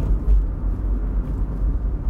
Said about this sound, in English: I'm driving in Manhattan. It is now a little after 10 o'clock. I'm driving along Houston Street, heading for the FDR Drive.